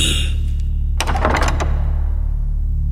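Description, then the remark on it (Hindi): A door opens with a brief cluster of latch clicks and a rattling thunk lasting under a second, then fades, all over a steady low background hum. No one speaks. “एक बार फिर से दरवाजे खुले”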